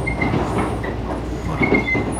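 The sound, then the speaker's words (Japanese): A Super View Odoriko limited express train on the Izu Peninsula, Japan, rumbles steadily along the rails, with a continuous low roar, rhythmic rattling, and a faint high metallic squeal from the wheels, without any talking. “スーパービュー踊り子にお別れ乗車”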